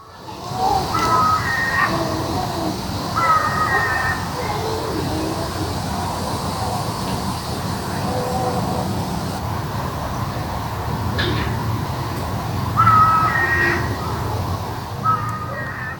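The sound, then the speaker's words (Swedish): A crow in the forests gives a few nasal, wah-like caws in short pairs near the start and again near the end, over a steady rushing, watery background noise. “Eh, kråka var väl ett förslag som vi fick eh, förra veckan, Hans, men eh, Jörgen, vad, mm, håller du med om det här?”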